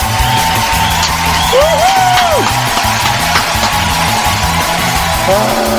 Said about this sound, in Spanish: y no solamente son los aplausos de, de nuestro público, sino también los aplausos de mi compañero